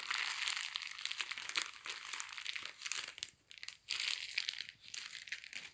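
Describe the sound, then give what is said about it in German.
Footsteps crunch slowly through knee-deep snow in a steady, continuous crackling, with a brief pause near the middle before the crunching resumes. No voices are heard. “Hört ihr, wie der Schnee knirscht?”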